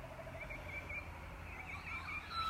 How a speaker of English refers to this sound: I'm standing out in the garden right now. You can tell. Listen to these birds.